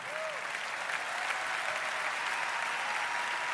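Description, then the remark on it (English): An audience claps steadily, a dense, even wash of many hands that holds at a constant loudness throughout, with no voices standing out. “Put your hands together and clap just a moment.”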